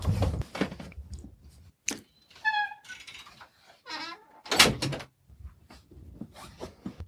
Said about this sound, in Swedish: Så jag ska stänga dörren.